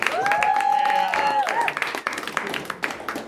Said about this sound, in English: And clap your hands for your next competitor,